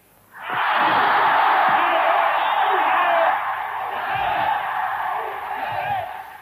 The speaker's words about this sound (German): Das war vor 50 Jahren, am 15. März 1938, hier auf dem Heldenplatz in Wien. Mindestens 200.000 Österreicher begrüßten jubelnd ihren früheren Landsmann Adolf Hitler, der sie heim ins Reich geholt hatte.